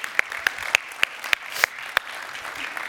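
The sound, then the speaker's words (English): An audience at a New Life Students gathering applauds to welcome first-time guests and New Life Kids, in a steady, dense wash of clapping, with a few louder, sharper claps standing out at a fairly even pace throughout. No one speaks. “At New Life Students, what we do is we welcome everyone with a round of applause, our first time guests.”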